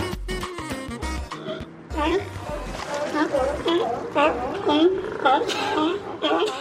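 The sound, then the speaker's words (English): A noisy crowd of California sea lions at a floating pier outside Elkhorn Slough in Monterey barks, belches, coughs, sneezes and wheezes, with many hoarse, overlapping calls coming in rapid, irregular bursts, loud, over a constant low rumble. “The belching, sneezing, coughing, and wheezing may sound like a bad cold, but the barking gives it away. These noisy mammals are California sea lions.”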